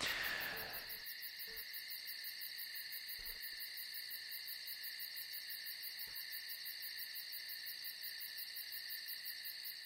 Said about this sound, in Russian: Сколько тишины тебе надо на подкаст, вот. чтобы положить туда звук сверчков?